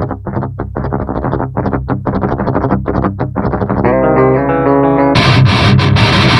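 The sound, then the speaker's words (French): A demo of the Metal Guitar Gods 3 amp simulator: heavily distorted metal guitar plays a fast, palm-muted chugging riff, then lets a chord ring out before switching to a brighter, fizzier distorted chord. Loud and steady, with no voices. “propose qu'on écoute un peu, euh, un peu des sons de, de ce magnifique Metal Guitar Gods 3.”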